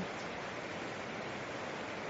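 A steady, continuous rush of flowing water, like a stream or small waterfall, fills the whole moment at an even, moderate level with no voices or breaks.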